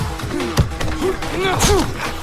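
Fistfight blows as a group of young men brawl with another man's helpers: a couple of sharp thuds land amid strained grunts and shouts from several men, continuous and chaotic over about two seconds.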